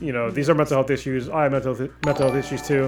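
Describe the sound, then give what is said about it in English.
A bright electronic donation alert chime rings out partway through, its sustained tones ringing on under a person who keeps talking steadily in the foreground. “thank you, Paul, um, oh, for oh, donating. That was his. That that sound was from him”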